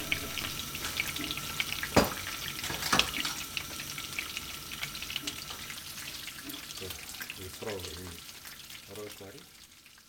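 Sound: fish frying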